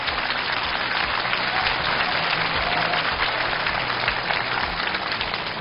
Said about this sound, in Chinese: 再一次把掌声送给陈可辛导演的精彩开讲，谢谢。